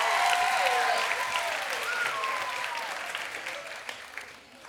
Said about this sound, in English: Can you guys give Jacob a round of applause? Give Jacob a round of applause.